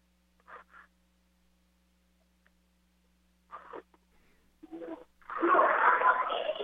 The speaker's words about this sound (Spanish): Bueno, al parecer también pues le, le ganó el llanto, quizás,